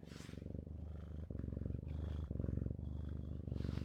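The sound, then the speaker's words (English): A small male cat purrs while attacking its owner, a steady low rumble with rhythmic breathing cycles, in and out several times, fairly loud and with no talking over it. “I am being attacked by my cat currently. Can you hear him purring?”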